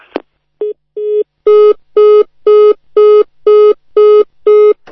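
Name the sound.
telephone busy tone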